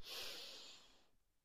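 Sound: deep inhale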